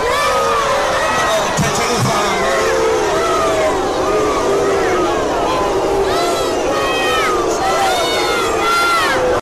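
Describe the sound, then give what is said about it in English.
A large, loud crowd of residents boos and jeers CoGTA Minister Des van Rooyen as he tries to address them about the government's decision on Vuwani, with many overlapping voices shouting and hollering continuously throughout, rising in waves of sustained, wavering cries. “CoGTA Minister Des van Rooyen was booed as he was trying to address residents about government's decision on Vuwani.”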